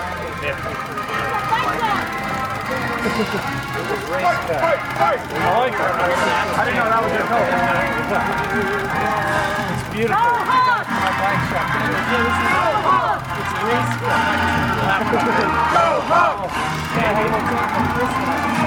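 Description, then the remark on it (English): A dense, steady crowd scene as RAGBRAI bike riders roll into a town: thousands of people walking down a main street, many overlapping voices chattering and calling out at once, with a low rumbling bed of movement underneath, loud and continuous throughout. “Now, just keep in mind you're standing in a crowd of thousands of people walking down a main street.”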